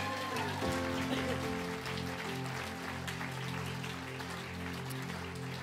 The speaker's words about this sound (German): Und können wir, ich weiß, wir haben das schon gefeiert, aber können wir Online Church und unseren Standort in Hagenow nochmal einen riesen Applaus geben?